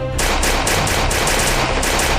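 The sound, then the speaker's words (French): Sustained automatic gunfire from Mohamed Merah, armed and emerging from the bathroom of an apartment, firing on police advancing from the window and balcony and from the front door: a dense rapid string of loud sharp shots pounding on without pause for about two seconds, with no voices. “Et c'est à ce moment-là que Mohamed Merah sort de la salle de bain, arme au poing, tire sur les deux axes de progression qui étaient en cours, celui qui venait de la fenêtre et du balcon et celui qui venait de la porte d'entrée de l'appartement.”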